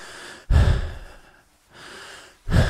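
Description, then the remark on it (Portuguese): A person breathes normally while running at a pace suited to their fitness, in a steady rhythm, with two strong, forceful breaths alternating with softer, quieter ones, and no talking. “Normal, como o meu corpo deveria respirar, certo?”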